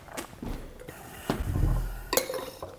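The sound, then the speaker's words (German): Wine glasses clink and knock a few times as they are handled, with sharp bright taps near the start and end and a low rumble of movement between them. “Nee, dann hole ich mal, nehme ich mal das andere Glas.”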